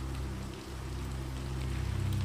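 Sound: rain falling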